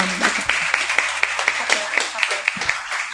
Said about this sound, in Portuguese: E nós estamos recebendo o apoio do Clube da Preta. Palmas pro Clube da Preta.